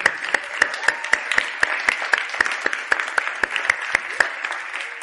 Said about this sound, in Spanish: Un aplauso para ellos y el Señor.